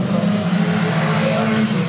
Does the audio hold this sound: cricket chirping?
no